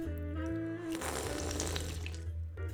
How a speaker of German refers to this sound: Oh, und es beschlägt so fantastisch mit, mit, mit Eis außen, weil es so kalt ist. Ja. Ah, ja. herrlich. Ich nehme mal einen Schluck fürs Publikum.